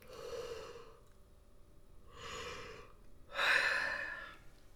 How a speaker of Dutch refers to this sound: Even het bekende gapen Lekker de kaken los.